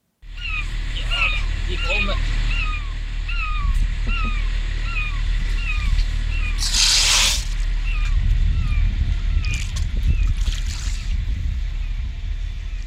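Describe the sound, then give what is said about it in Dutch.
A beluga whale wearing a harness chirps and whistles in quick repeated squeaky calls, high and clear over a steady low engine rumble from a Norwegian ship, with a brief loud splash-like burst midway. “Ja, als ik dat zo, dat zo hoor, en ik meen dat ook ergens gelezen te hebben, dan is een beluga volgens mij, hoewel die witte walvis heet, eigenlijk een dolfijn, hè?”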